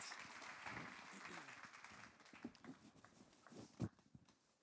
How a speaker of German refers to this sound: Geben wir ihnen einen herzlichen Applaus.